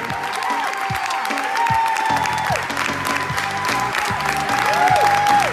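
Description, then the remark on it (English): A large crowd cheers and applauds steadily, a dense wash of clapping and roaring voices with occasional higher whoops and whistles rising above it, loud and sustained throughout. “Okay, so they're cheering, Curtis. They're cheering.”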